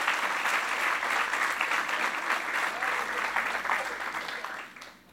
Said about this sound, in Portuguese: Pode aplaudir mesmo.